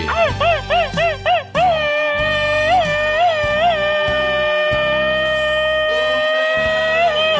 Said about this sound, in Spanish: Ese saludo y este grito ametralladora va para nuestro amigo de este programa.